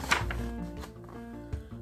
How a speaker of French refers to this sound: Au même moment, on frappa à la porte.